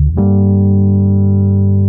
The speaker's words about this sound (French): Du piano électrique pour être exact. Un petit synthé en plus.